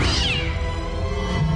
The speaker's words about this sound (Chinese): 那只猫说了一句